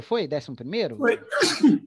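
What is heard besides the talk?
sneeze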